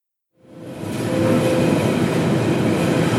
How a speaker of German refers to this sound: Nächste Station, Humboldthain. Achtung, Türen können automatisch öffnen. Ich bin in den Berliner Norden, in den Wedding gefahren